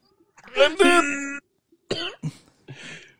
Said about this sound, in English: aggressively grunting at him. Hey, I don't like that tone, son. don't you grunt at me?